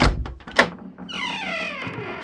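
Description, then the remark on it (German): A few dull knocks on a wooden hut door, then a drawn-out creaking squeak as the door swings open. No one speaks. “Und ich hatte das nicht erwartet, als ich an die Hüttentür klopfte.”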